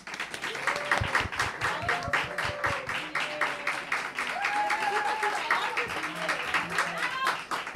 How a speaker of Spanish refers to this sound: así que al público ya digo lo mismo O que sí que le pido un aplauso muy fuerte para la zorra que todo lo sabe.